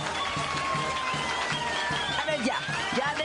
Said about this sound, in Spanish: Aplausos, gritos, fiesta